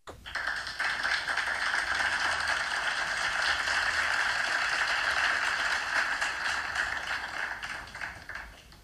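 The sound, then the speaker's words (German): Steady applause from a crowd, a dense crackle of many hands clapping at once, holding an even loudness for about eight seconds before thinning out at the end. No one speaks over it. “Uh, einmal bitte Applaus für Nels Nelsnatche Nebenfakten.”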